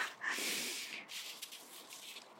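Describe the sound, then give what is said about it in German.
Crisp, crunchy rustling of feet moving through frozen leaves on an organic farmer's field, a steady crackling swish in uneven bursts with a few sharper crunches, fairly quiet, with no voices. “Ich raschel hier gerade durch das gefrorene Laub auf dem Feld von unserem Biobauern.”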